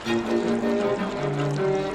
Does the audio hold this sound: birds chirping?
no